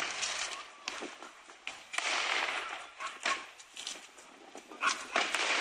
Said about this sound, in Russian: Ну, прямо сейчас запись с места событий, где взорвался пиротехнический завод. Надеюсь, будет слышно. Секунду. Сейчас мы, сейчас мы воспроизв... попробуем воспроизвести. Это буквально через несколько секунд после взрыва.